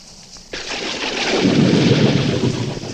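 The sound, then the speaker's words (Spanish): After a brief hush, a sudden wash of heavy rain bursts in loud, and a deep rolling rumble of thunder swells beneath it and keeps building. “¿Sabes cómo la viene esta lluvia al campo?”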